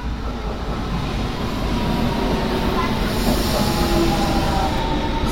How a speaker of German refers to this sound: So, da ist ja auch schon meine S-Bahn.